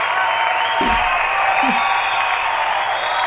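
An audience applauds and cheers in a steady, dense wash of clapping that holds at an even level throughout, with a couple of brief vocal whoops rising out of the crowd noise.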